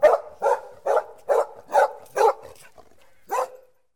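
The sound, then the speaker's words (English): A dog barks six times in a quick, steady rhythm, pauses briefly, then lets out one more bark. The barks are fairly loud, with no one talking. “Oh, a dog must have chased away that big bad cat.”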